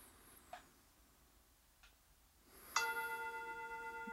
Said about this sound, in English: A chime sounds as though I were in a monastery being summoned by a bell to pray.